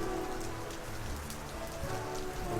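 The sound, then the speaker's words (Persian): Steady rain patters against a window pane, a dense, continuous spatter of drops at an even, moderate loudness with no voices. “صدای قررش باد می آمد چکه های باران به پشت شیشه پنجره می خورد کش می آمد و با صدای یک نواختی با آهنگ ساز می آمیخت”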